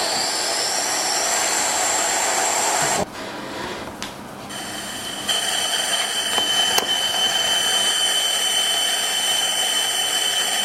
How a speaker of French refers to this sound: En fait, en fonction du son qu'on entend, le plasma, vous allez voir, est plus ou moins stable en fait.